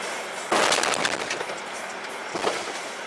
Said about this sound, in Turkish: Ama arkasından gelen sürücü o kadar şanslı değildi. Otomobile çarptı.